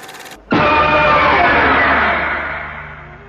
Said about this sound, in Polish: kot Leon, który na widok kropidła dostawał, dostawał spazmów. Tutaj kot, proszę Was, proszę bardzo, 10 sekund